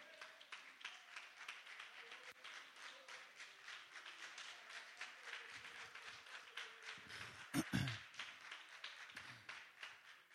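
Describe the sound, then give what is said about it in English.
An audience claps their hands to Jesus steadily for about ten seconds, a dense, continuous patter of many hands, with a brief louder thump partway through and faint voices underneath. “Come on, let's clap our hands to Jesus.”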